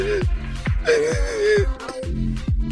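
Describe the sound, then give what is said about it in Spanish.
A voice imitates someone crying, with a few quavering, wailing sobs broken by short catches of breath. It is fairly loud, with no words spoken. “Entonces se quedó callada y a lo lejos se escuchaba alguien estaba llorando allá en el rincón, en el granero.”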